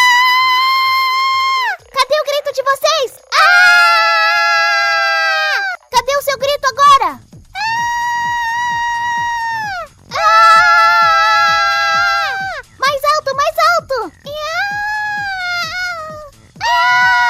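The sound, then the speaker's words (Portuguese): A man screams loudly, letting out several long, sustained, strained cries broken up by short choppy yelps, each held for a couple of seconds. “E olhando para eles, eu quero que eles ouçam o grito da sua alma, o grito da sua masculinidade que tá aqui, e eles vão retribuir com o grito deles.”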